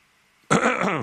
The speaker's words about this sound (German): Jetzt, okay, jetzt ist er drin, der Räusper.